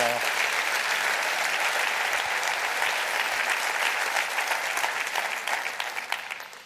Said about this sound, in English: Clap your hands and rejoice for that right